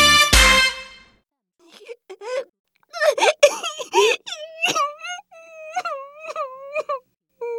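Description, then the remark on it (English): A girl cries and wails in drawn-out, quavering sobs, with a few broken breaths between rising, moaning cries, fairly loud, following a brief sharp burst at the start. “Why are you crying”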